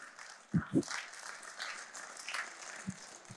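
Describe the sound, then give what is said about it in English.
A church crowd claps hands to the Lord in praise, a steady, dense patter, with a few louder, sharper claps standing out early and again near the end. No one speaks over it. “Somebody clap your hands to the Lord today.”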